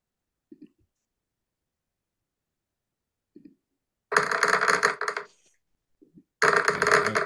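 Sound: dice being rolled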